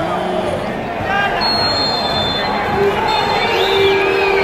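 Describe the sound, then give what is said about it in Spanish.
A stadium crowd of angry fans boos as the match ends, a loud, steady roar of many voices with shrill whistles cutting through, one rising and falling near the end. “El abucheo cuando termina el partido.”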